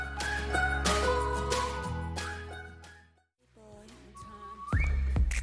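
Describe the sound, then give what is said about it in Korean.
A person whistles a short melodic tune with clear sustained pitched notes, a brief pause near the middle, then the whistled melody resumes against soft instrumental music. “공효진, 조인성의 연못 키스신 생각하면서 저는 휘파람 좀 불어볼게요.”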